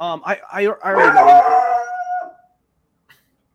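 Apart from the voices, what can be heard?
dog barking and howling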